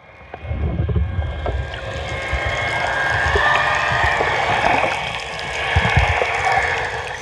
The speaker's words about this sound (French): J'aime le bruit blanc de l'eau.